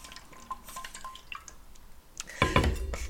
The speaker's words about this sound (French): Sur ce, je vais boire une petite gorgée d'eau.